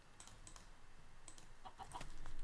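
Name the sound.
video game chicken clucking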